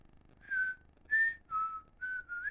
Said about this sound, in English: No, he wasn't whistling Dixie. I'm just saying it'd be kind of funny. I don't know what song he's whistling, but it sounds familiar.